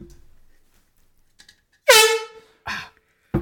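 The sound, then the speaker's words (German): A loud, blaring air horn blast, used as a veto-button sound effect, sounds once for about half a second, its tone sagging slightly as it fades, followed by a couple of short noisy bursts. “Achtung, Veto-Knopf.”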